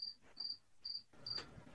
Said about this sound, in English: Oh yeah, I can literally hear crickets.